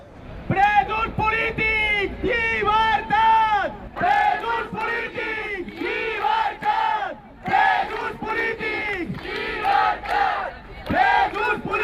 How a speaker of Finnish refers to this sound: Vapauttakaa poliittiset vangit. Iskulauseita huudetaan tiistaina, kun itsenäisyyttä vaativat katalaanit kokoontuvat Barcelonassa järjestettävään mielenosoitukseen.